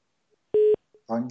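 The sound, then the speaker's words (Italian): A single loud, steady telephone tone lasting a fraction of a second marks a dropped phone call during a Radio Libertà broadcast, followed by a faint blip and then a voice beginning to speak. “È caduta la telefonata”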